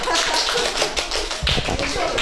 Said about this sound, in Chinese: 朋友们鼓鼓掌。